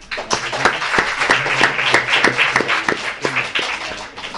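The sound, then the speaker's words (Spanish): An audience breaks into steady applause for a student who comes up to ask a question, many hands clapping in a dense, continuous patter that stays fairly loud for the whole stretch, with a faint murmur of voices underneath. “Y ahora va a subir una alumna, eh, va a subir una alumna que, que nos va a hacer una pregunta y yo creo que le vamos a dar un aplauso, ¿vale?”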